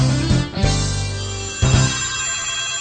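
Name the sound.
telephone ringing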